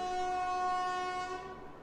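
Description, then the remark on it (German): A loud horn blares in one long, steady blast, its harsh tone holding for nearly two seconds before easing slightly at the end, with no voices present. “Also hup doch nicht die ganze Zeit so rum.”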